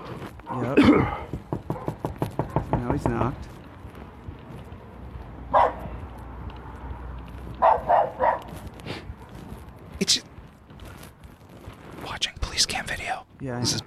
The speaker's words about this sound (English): These are not your dogs, are they? Okay. I don't know who they are.